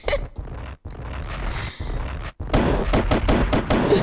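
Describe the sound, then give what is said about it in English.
A loud gunshot sound effect: dense, crackling blasts at first, then a rapid volley of sharp, evenly spaced shots ringing out harsh, with no voices. “This will be a gunshot.”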